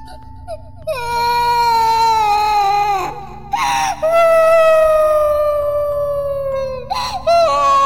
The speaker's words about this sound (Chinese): 小小兔没有追上小狗，自己却迷路了。它心里很害怕，就哭了起来。